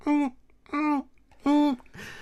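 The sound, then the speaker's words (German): A human voice imitates a yellow-bellied toad's call with three short, evenly spaced hooting notes, each a steady harmonic tone lasting about a quarter second, followed by a brief breathy sound. “oder die Gelbbaronken hier, die machen ja so”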